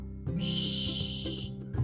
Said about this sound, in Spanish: Al atardecer, el pastor daba un chiflido largo.